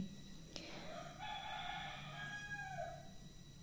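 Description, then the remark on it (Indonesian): A rooster crows a long, drawn-out cock-a-doodle-doo, preceded by a brief sharp click, with a steady outdoor hum underneath and no one speaking. “ya di sini suara ayamnya lebih banyak dibandingkan di tempat sebelumnya jadi di pagi hari itu lebih heboh dan lebih menyenangkan”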